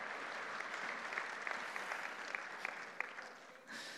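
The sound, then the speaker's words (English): Steady applause from an audience for the crew who handled the instruments, dense clapping with a few sharper claps standing out, holding for about four seconds before tapering off near the end. “Give, give my uh, ninja masters a hand back there.”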